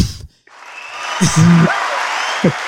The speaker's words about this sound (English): Man deserves a round of applause.